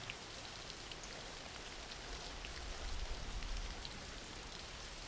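Steady rain falls throughout, a dense hiss of drops with a low rumble that swells briefly near the middle. No one speaks.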